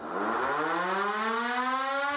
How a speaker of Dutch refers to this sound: De sirenespeler wist niet dat een sirene moet opwarmen voor het geluid maakt, dus hij draaide tevergeefs vervoed aan de machine. Toen het publiek de zaal verliet, gaf de sirene een fraaie solo.